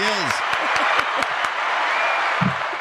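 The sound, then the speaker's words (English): Loud, dense applause from a large crowd, a steady wash of clapping with cheering voices and a whoop rising over it near the start, sustained for a few seconds. “Dude, that, that that applause, that the, the roaring crowd, that's that's all coming from my taste buds.”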